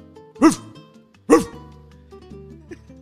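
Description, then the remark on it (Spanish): A voice imitates a dog barking, two loud, sharp woofs about a second apart, followed by quieter background murmur and a faint short sound near the end. “Entonces el primer, gato, el, primer gato le dice, oye, pero ¿por qué tú ladras si tú eres gato?”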